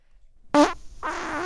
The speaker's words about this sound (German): Ja, komm, dann furzt du noch, du kleiner Wichser. Boah, den kann man schön laut machen im Schnitt. Der war stabil, der Furz.